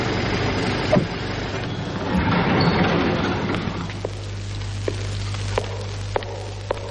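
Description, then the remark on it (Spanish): A car waiting outside an embassy idles with a steady low hum, while the chauffeur opens its door with a clunk early on, followed by scattered soft clicks and knocks. No one speaks. “El banquero, furioso, abandona la embajada. Fuera le espera su coche. El chofer le abre la puerta.”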